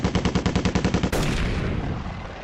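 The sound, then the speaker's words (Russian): A rapid burst of automatic gunfire from a Yak-9K fighter's two heavy machine guns and cannon, about ten loud, evenly spaced shots in a second, gives way to a dense, continuous roar of heavy fire. No voices are heard. “У меня был як 9К крупнокалиберный не только два пулемета, а еще была и пушка.”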